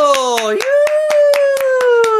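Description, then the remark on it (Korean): An audience claps in a steady, even rhythm, about ten sharp claps in quick succession, while a sustained voice holds a gliding tone underneath. “자, 여러분 분들 박수 한번 주세요. 박수.”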